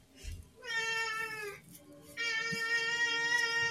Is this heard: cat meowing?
yes